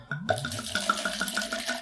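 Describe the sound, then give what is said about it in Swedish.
Red wine glugs out of a bottle into a glass, a steady pour with quick rhythmic gurgles lasting a couple of seconds, and no voices. “Du får hälla själv så.”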